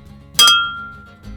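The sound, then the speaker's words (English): Two beer glasses meet in a single bright clink for a toast, the ringing tone lingering and fading over about a second against a quiet background. “On this note, I bet you can hear the beer. You ready? Cheers.”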